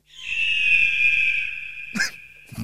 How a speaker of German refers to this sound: Ja, ist immer, wenn du am Turm stehst. Immer, wenn du am Turm genau. stehst und den Umgebungsscan machst, dann, äh, dann hörst du den Vogel.